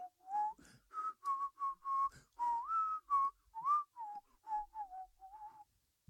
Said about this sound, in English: Whistles Disney.